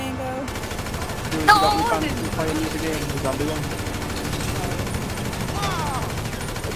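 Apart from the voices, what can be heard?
gunfire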